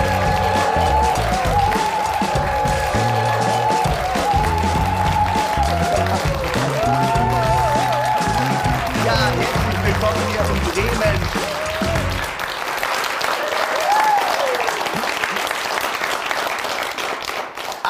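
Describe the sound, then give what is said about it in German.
A large live audience at the Witthus Hammer Studios in Bremen claps and cheers loudly and steadily as the show's host is introduced, whoops rising above the crowd. A thumping musical beat plays underneath for most of the time, then drops out, leaving the applause on its own. “Also, ich bin ja überwältigt, so viel Publikum hier zu haben.”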